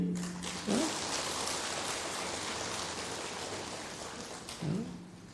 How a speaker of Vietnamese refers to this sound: Vỗ tay cho đỡ buồn ngủ biết không